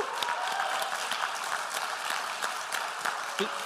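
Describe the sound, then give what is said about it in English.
A church audience breaks into steady applause for a couple starting a new church in Falkirk, dense overlapping clapping at a consistent, fairly loud level throughout, with a few faint cheers mixed in. “Let's hear it for”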